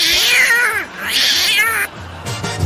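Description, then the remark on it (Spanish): A cat meows loudly twice in long, wavering, high-pitched yowls, the second cry rising and falling before a brief pause and a harsher trailing sound at the end. “¡Agarren ese gato!”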